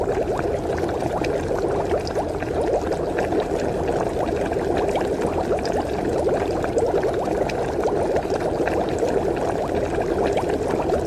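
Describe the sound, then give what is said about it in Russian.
Water pours steadily into a small saucepan, a continuous splashing rush that holds an even, fairly loud level for the whole stretch with no pauses and no one talking. “Тем временем в маленькую кастрюльку добавьте воду, сахар и еще можно лавровый лист.”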